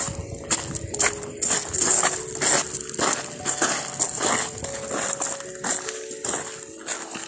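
Loud footsteps, made deliberately extra loud, crunch along a nature trail in a quick, steady rhythm, about two or three steps per second, with a faint hiss of outdoor ambience underneath and no talking.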